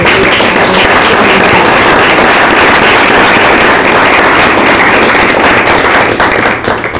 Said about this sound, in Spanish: antes os pido un aplauso para los dos